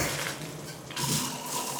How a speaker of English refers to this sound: I arrived at my house, and my mother looked at me and said, You are super purple. Go take a shower.